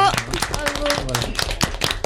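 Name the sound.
audience clapping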